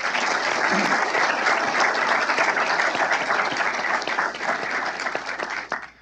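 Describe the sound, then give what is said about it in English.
A crowd at the Heritage Foundation applauds steadily for moderator John Malcolm after a conversation with Justice Alito, a dense wash of many hands clapping at full strength for several seconds before tapering off at the end. “Round of applause for John, please.”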